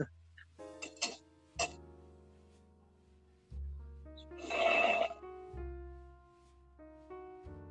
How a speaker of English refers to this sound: oh, that was just me sipping my coffee.